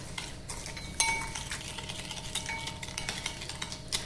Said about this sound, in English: And it's a good thing to do this just before you pour it over the cake because I don't want the sugar to completely dissolve into the lime juice. I need it to keep a little bit of its crunch. And that's just going to stir into the sugar like that.